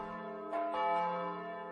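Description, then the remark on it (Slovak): A deep medieval church bell by master Konrad, from Kláštorisko, tolls with a rich, sustained hum of overtones, two strikes ringing out close together and then resonating steadily, with no voices present. “Do zvuku zvonov z kláštoriska zvona, stredovekého zvona majstra Konrada, ktorý nezvoní v Rabušiciach”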